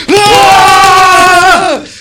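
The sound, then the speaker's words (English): Several voices roar together in unison, one loud sustained shout lasting under two seconds that holds steady at a strained pitch before trailing off. “okay, let's all give a roar of like moving them three, one, two, three.”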